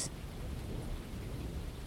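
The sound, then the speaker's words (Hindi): A steady thunderstorm outside: low rumbling thunder rolls beneath a constant wash of rain, with a brief crackle at the start, fairly loud and continuous, no voices. “you know besides तूफान अभी भी चल रहा है बाहर माहौल ऑलरेडी थोड़ा स्पूकी है”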